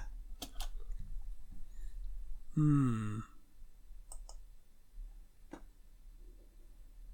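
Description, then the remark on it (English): A handful of sharp computer mouse clicks and keyboard taps as someone looks something up on the internet, scattered irregularly across the moment, with a person giving a brief murmur partway through. “that reminds me, I was gonna, I was gonna look something up for to talk about later. I'll do that now.”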